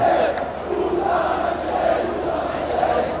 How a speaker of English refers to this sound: There's a real sense of anticipation around this game, and the United bus when it arrived was booed. I saw a couple of people throw things at it and now they're singing again the Puta Manchester.